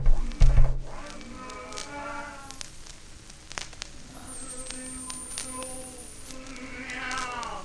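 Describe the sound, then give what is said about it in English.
A badly pressed vinyl record plays backwards, its warbling, smeared voices and music running in reverse, with crackles and clicks, while a thin, steady high-frequency whine from the bad pressing drifts slowly above everything. “That's just a bad record pressing. That's some high frequency whine in there. Listen to it backwards.”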